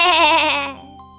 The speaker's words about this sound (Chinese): 莫特尔干脆不吃东西，一直望着围墙，咩咩的惨叫。咩咩！